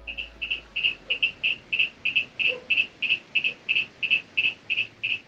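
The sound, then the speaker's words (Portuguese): A small bromeliad frog of the species Fritziana tomini, which lives in Santa Teresa, calls in a steady series of short, high-pitched chirping notes, repeated rapidly and evenly for several seconds against a quiet background hiss. “Esse é um sapinho de bromélia que vive em Santa Teresa, uma espécie chamada Fritziana tomini.”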